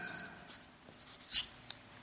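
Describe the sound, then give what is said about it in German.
Several short, squeaky strokes of a marker pen across a board come in quick irregular bursts, with a louder squeal near the middle and a faint tap at the end. “Entweder ist er ganz dünn oder ganz dick, komme ich nicht mehr wieder rein.”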